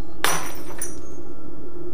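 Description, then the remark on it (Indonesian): A drinking glass slips by accident from a hand in a kitchen, hits the floor and shatters with a sharp, loud crash, followed by a second bright burst of tinkling shards that quickly fades into a quiet ringing tail. “Tanpa sengaja, gelas yang digenggamnya jatuh dan pecah.”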